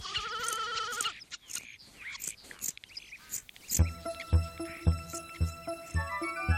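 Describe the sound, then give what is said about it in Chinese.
A lamb that is having its wool cut off with a big pair of scissors lets out one shaky, wavering bleat lasting about a second, followed by soft crisp rustling noises and then a steady beat of plucky music. “有一天呀，派乐拿了一把大剪刀，把小绵羊身上的羊毛都剪了下来。”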